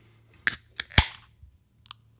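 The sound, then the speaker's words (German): A beer can being cracked open: a couple of sharp clicks, then a loud pop with a brief fizzing hiss, followed by a faint final tick. No one speaks. “Früher wollte ich immer Buschauffeur werden, bis ich das Geräusch von einer offenen Bierdose äh, entdeckt habe, das ähnlich tönt.”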